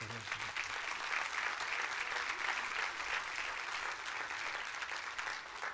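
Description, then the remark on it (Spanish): An audience applauds steadily, giving applause to God, a dense, continuous wash of many hands clapping at an even loudness from start to finish, with no speech over it. “Si puede, déle un fuerte aplauso a Dios.”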